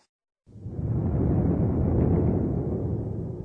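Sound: thunder rumbling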